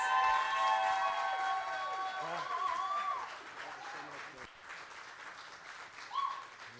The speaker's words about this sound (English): And so here's what I want you to do Will you stand on your feet and give it up as loud as you can